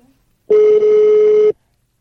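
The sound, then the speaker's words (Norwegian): A single steady telephone ringing tone plays over the line for about a second, a flat, clear mid-pitched beep with a slightly tinny phone-line quality, bracketed by near silence. “Det er ringelyd.”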